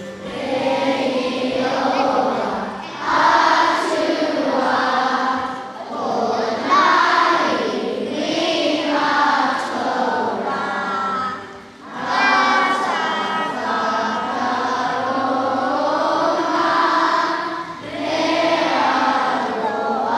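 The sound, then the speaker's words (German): A large group of schoolchildren stands and sings the New Zealand national anthem together in unison at a school assembly in a very big indoor hall, a sustained, melodic chorus with held notes and brief pauses between phrases, echoing slightly. “Jetzt stehen alle Kinder auf für die Hymne von Neuseeland und singen die miteinander.”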